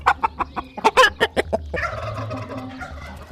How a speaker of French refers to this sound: Il courut vers le poulailler pour donner à manger aux poules, mais malheureusement, elles dormaient déjà couvant leurs œufs. Il souleva délicatement la première poule pour ramasser son œuf, mais celle-ci se réveilla et cria